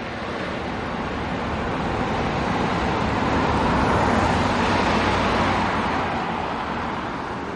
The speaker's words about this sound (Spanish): Entra en el sedán gris. El coche se marcha. Fred deja los prismáticos y arranca. El coche de Tony sale a la carretera y se aleja.